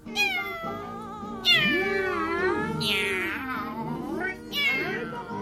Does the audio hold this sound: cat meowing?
yes